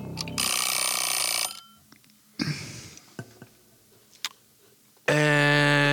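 A loud alarm clock used as a quiz timer rings in a sustained, harsh burst, then a few scattered clicks and knocks follow before a second bright, buzzing alarm tone blares at the end.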